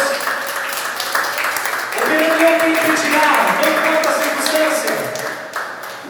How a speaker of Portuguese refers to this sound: Você pode aplaudir essa palavra? Você pode aplaudir ao seu Deus?